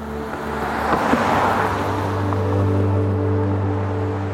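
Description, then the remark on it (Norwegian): Steady low engine drone and road rumble from a car cruising at speed along the E6 highway towards Oslo, Norway, with a broad wash of tire and wind noise swelling slightly then holding constant, no voices. “Mens de kjørte langs E6 tilbake til Oslo”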